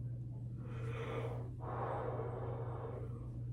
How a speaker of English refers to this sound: I've yawned like seven times already today. In during just in this podcast from like from beginning to start from beginning to this point, like I've yawned like seven times. Again, I'm still exhausted, okay?